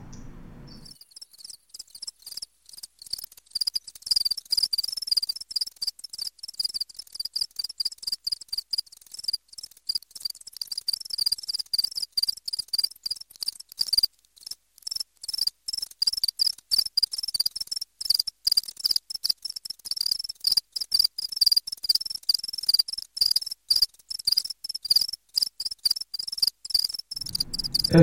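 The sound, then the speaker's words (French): A house cricket chirps steadily, its shrill, high-pitched pulses repeating in a fast, continuous rhythm for the whole stretch with no other sounds or voices. “Alors, à quoi je vous rappelle le son du grillon domestique que vous connaissez évidemment”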